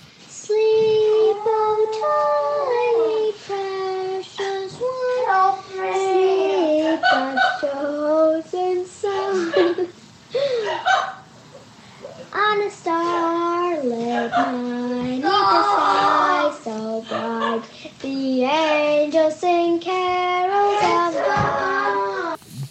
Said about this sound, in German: der seine kleine Schwester inständig bittet, mit der Singerei aufzuhören, er würde Ohren- und Kopfschmerzen davon kriegen.